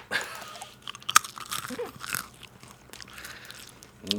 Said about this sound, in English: I'm gonna loudly eat a pretzel into the mic because I want to see how this sounds.